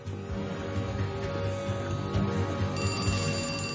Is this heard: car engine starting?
no